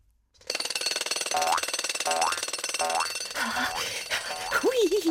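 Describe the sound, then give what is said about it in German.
Springy, rising boing effects repeat about every second over a loud, rapid rattling pulse, ending with a few wobbling, warbly boings, as the tiny cheeky figure Ormina jumps on her eardrum trampoline. No one speaks. “So kann ich noch wilder, noch höher und noch schneller auf mein tolles Trampolin springen.”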